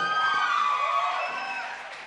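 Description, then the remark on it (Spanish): A concert crowd applauds and cheers a band, with whoops and shouts riding over steady clapping that stays loud throughout and tapers slightly toward the end. “Buenas noches, qué ricos aplausos.”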